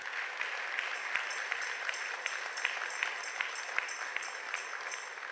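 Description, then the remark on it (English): A church audience claps together in sustained applause as a clap offering for its pastors, a dense steady patter of many hands with sharp individual claps popping out, holding at an even level throughout with no voices heard. “I think we should also, you know, give a lot a clap offering for them.”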